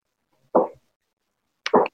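Two heavy footsteps thud about a second apart in a video being played, distinct, with silence between them and no voices.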